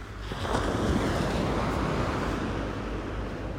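Steady surf noise rolls on without a break, a broad wash of ocean waves near the shore with a gust-like rumble underneath and no voices.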